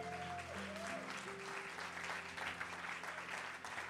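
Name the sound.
audience applauding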